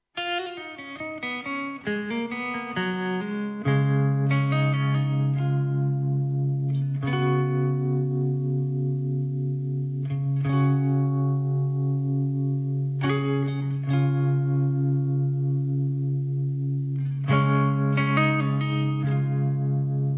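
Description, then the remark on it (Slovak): A short instrumental music break: sustained, effects-laden electric guitar chords over a steady low drone, changing every few seconds at an even, moderate loudness, with no voices. “po hudobnej pauze budete mať možnosť presvedčiť sa o tom aj sami.”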